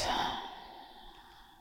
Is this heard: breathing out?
yes